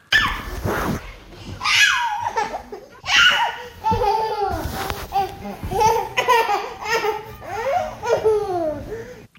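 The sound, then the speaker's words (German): A baby girl laughs hard on a couch in repeated breathless bursts, high-pitched squeals and giggles tumbling over each other, with an adult voice occasionally audible in the background. “Ein kleiner Moment, wo sie auf der Couch halt einfach sich kaputt gelacht hat.”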